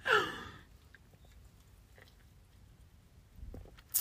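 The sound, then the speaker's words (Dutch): Sipping of a fizzy cola drink: a breathy slurp at the start, then quiet wet mouth clicks and a soft swallow before a final lip smack. No one speaks. “Ik neem af en toe een slokje van mijn cola.”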